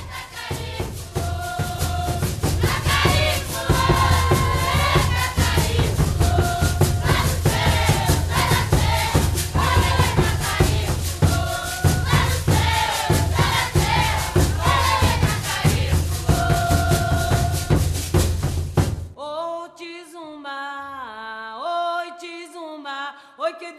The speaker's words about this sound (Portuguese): Os tambores, chamados de tambus, são os principais instrumentos. Nesse nosso som dos quilombos, fique com uma sequência curtinha de candombes vindos lá da região da Serra do Cipó, em Minas Gerais.